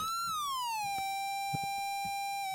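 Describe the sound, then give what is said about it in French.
A steady dub siren synth tone slides downward in pitch and then holds, bright with harmonics, dry with no echo because the delay effect is switched off, playing alone without any voices. “Ok, parce qu'en plus, en général, sur la sirène dub, on va brancher bien sûr la pédale d'effet qui va bien, et bien sûr.”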